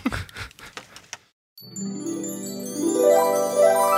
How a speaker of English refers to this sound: Can we keep the wind chimes? Yeah, we can keep the wind chimes. Can they be? Can you make some brutal wind chimes?